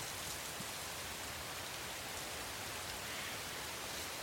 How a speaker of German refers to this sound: Sprich, äh, was wir jetzt hören, ist mal nur die Atmos aus so einem Laubwald, Blätter rauschen, ein bisschen Wind, ein bisschen allgemeines Vögelgezwitscher.